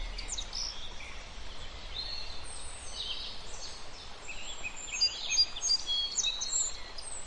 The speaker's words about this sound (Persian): صدای پرنده ها